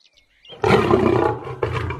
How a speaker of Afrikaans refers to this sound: Hy loop tot by leeu se lêplek lee en begin grom om Leo se aandag te trek. Dis net na middagete. Leo se maag is vol en hy lê heerlik in slaap. Maar na ruk maak luiperd se gegrom hom wakker.